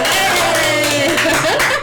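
A burst of dense, steady applause with many hands clapping at once, loud and continuous for about two seconds, with some cheering tones mixed in.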